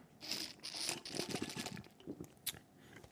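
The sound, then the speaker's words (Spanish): Sips of cold lemonade: a few short, wet slurping and swallowing noises in quick succession, fairly quiet, with no one talking. “Eh, eh, traguito, traguito a la limonada, ¿verdad?”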